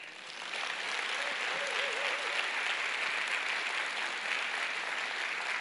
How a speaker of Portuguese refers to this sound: Agora eu quero uma salva de palmas dessa igreja para ela mesma.